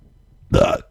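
A single loud, throaty burp erupts after a brief quiet moment, lasting about a third of a second with a resonant, gurgling tone, with no talking.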